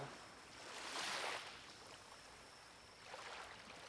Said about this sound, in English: You listen to the soothing sounds of the waves and reflect on how peaceful it is to be in such a private, secret place. Just you and the sound of the waves and your breath.